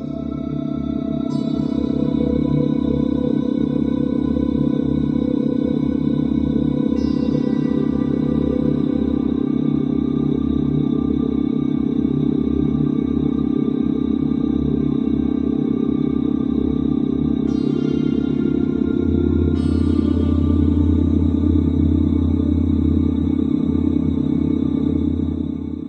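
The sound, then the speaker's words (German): A gamma brainwave audio tone: a steady, unbroken low drone with layered humming tones, holding an even loudness throughout, with no voices. “Ja, das war Gamma für die Spitzenleistung, für Peak Performance”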